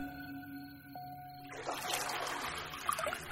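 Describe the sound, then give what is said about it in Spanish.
After a short low hum, room-temperature water begins gushing into a palace bathtub being prepared by servants, a steady rushing and splashing that fills the rest of the moment without any voices. “Los sirvientes del único heredero habían preparado la tina sabiendo de antemano las preferencias de Felipe, con el agua a temperatura ambiente”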